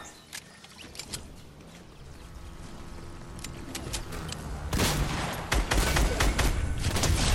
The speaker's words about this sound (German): Da rechts schießen welche, wenn wir mal schauen, was dort abgeht.